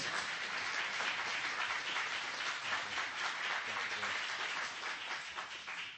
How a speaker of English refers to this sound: And so I'd just like to ask you to give the Lord a, a round of applause.